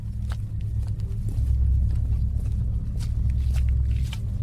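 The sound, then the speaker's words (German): Footsteps of two people walking outdoors to a car over a steady low rumble, with soft repeated scuffs and taps spread across the few seconds, not loud. “Die beiden laufen zum Auto.”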